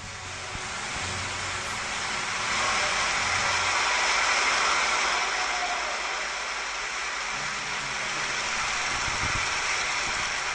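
Fierce, sustained audience applause at a concert, a dense, steady roar of clapping that swells slightly in the middle and continues loudly throughout, with no voices heard.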